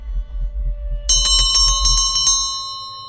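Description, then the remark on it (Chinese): A hand bell rung by Mrs. Medlock rings in a quick run of about eight bright, high-pitched strokes, then its shimmering tone fades out over a low, steady rumble. “哎呀，梅德拉克太太在摇铃了，我得走了。”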